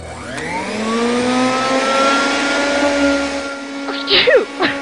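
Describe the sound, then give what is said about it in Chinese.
A hair dryer, used to dry freshly washed hair, whirs to life, its motor whine climbing in pitch over a steady rush of air, holding a loud even drone before cutting off as brief voice-like chirps follow. “这样想着，还是拿出吹风机把刚洗的头发吹干，免得着凉。”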